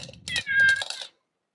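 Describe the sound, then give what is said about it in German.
A single drawn-out cat meow, fairly clear, rising and holding for under a second before cutting off into silence, with a faint low rustle at the start. “Ich habe hier eine Katze”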